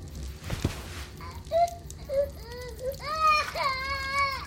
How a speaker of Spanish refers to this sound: Llora, nene, en esta tu cuna.